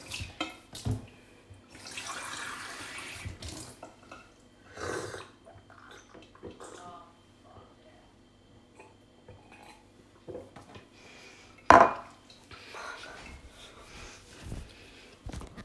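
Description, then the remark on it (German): Someone makes a glass of water: the glass clinks and knocks against hard surfaces, and a short hissing stream of water pours for a couple of seconds, with a few more scattered clatters afterward. “Ich mache mir nämlich jetzt ein Glas Wasser.”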